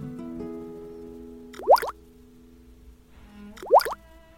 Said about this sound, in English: 嗯，这又是什么声音？哦，原来是一只金鱼在冒泡泡。